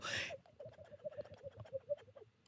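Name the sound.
voice imitating pigeon cooing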